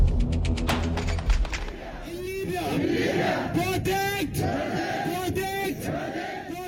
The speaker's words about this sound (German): Oktober 2021, Frankfurt am Main. Im Bahnhofsviertel demonstrieren hunderte Menschen. Die meisten von ihnen sind Eritreer. Ein Mann ruft durch ein Mikro. Die Menge brüllt zurück: Freiheit, Freiheit.